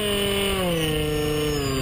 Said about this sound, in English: A tropical forest clearing in Sumatra serves as a runway as Lian Pin Koh test flies his conservation drone. Quickly airborne, the drone's cameras capture a bird's eye view of the dense forest below.